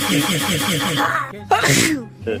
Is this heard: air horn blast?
no